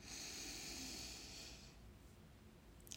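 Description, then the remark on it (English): A slow, deep breath drawn in during a belly-breathing exercise, the belly expanding: a soft, airy hiss that swells and holds for over a second, then fades into near silence. No one speaks. “So, breathing in, the belly expands.”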